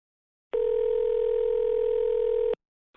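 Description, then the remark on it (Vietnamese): A single steady telephone ringback tone hums for about two seconds while calling the English-language centre of teacher Mai Phương. It is clear, then cuts off into silence with a faint blip right at the end. “Mình có gọi đến trung tâm tiếng Anh của cô Mai Phương, cô giáo mà có khóa học bị sao chép mà mình học thử ấy.”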